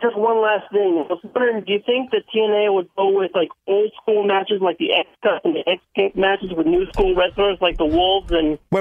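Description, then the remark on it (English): A man calling in on a cell phone speaks over a thin, band-limited phone line, his voice cutting out in abrupt gaps as the call breaks up, with a low rumbling noise creeping in toward the end. “you broke up a little. I'm sorry. You must be on a call phone.”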